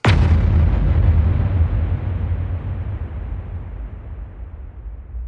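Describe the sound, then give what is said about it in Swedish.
A single loud gong strike with a sharp attack, then a deep, low rumbling resonance that rings on and slowly fades over about five seconds. No voices. “Men med det sagt så har det blivit dags att eh, slå i gonggongen.”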